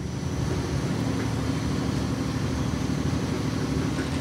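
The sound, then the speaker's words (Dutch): A high-pressure water sprayer, fed from a water tank, is used from below to wash away foil. It runs steadily, a loud continuous motorized drone with a low hum and a broad hissing rush, unchanging from start to finish with no voices. “En je bent eigenlijk met een soort hoge drukspuit aan het weg...”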